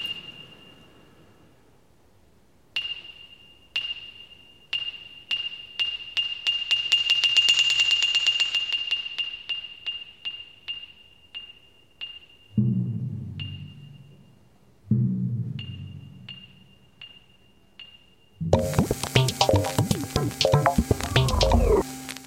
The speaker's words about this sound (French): Alors oui, c'est un peu zarbi comme son, le Célestat